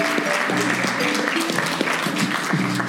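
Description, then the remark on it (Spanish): A crowd applauds with dense, continuous clapping that holds steady for about three seconds, with faint cheering voices mixed underneath. “Un aplauso, mae.”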